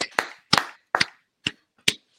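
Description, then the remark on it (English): A short burst of hand clapping, about six sharp, loud claps in an uneven rhythm over two seconds, with no talking, given as a round of applause for Doug Pederson. “Let's give Doug Pederson a, a round of applause, guys.”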